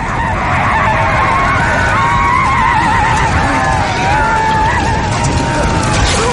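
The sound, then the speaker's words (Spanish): Several horses of the charging Dothraki cavalry whinny and neigh in overlapping, wavering cries over a loud, dense rumble of the mounted riders rushing past, continuous throughout. “Los jinetes pasan de largo a su lado.”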